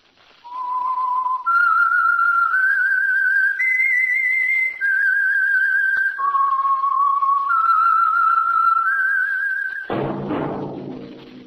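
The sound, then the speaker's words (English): A clear whistled melody moves through several sustained, stepping notes for about ten seconds, then fuller orchestral music swells in at the end. “That whistle is your signal for the Signal Oil Program the Whistler.”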